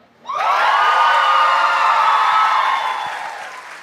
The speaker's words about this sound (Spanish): Vamos a hacer una pequeña votación, aplausómetro, ya que están aplaudiendo tanto y espero luego aplaudan también un poquito más. Un muy fuerte aplauso para.